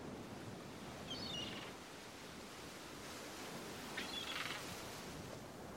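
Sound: ocean waves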